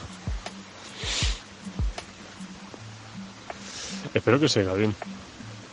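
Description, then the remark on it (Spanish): A steady outdoor wash of running water with breathy gusts of wind and low buffeting thumps on the microphone, recorded on a mobile phone in the mountains during a hike, while a man speaks briefly near the end. “Porque está súper chulo así con el ruido del agua de fondo y el viento.”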